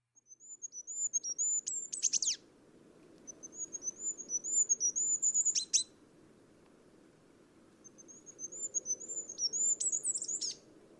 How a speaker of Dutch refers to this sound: De goudhaan kan niet alleen piepen, hij kan ook nog zingen. Daar heb ik ook een fragmentje van.